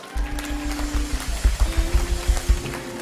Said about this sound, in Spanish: ¿Y sabe qué es lo hermoso aquí? ¿Qué mujeres que hay en esta casa? No, denle un aplauso a esas mujeres.